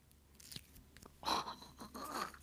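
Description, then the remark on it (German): Wet squelching and sticky smacking from glitter slime being squeezed and kneaded by hand, in a few irregular bursts with short crackly pops, fairly quiet with no talking. “Schmatzgeräusche.”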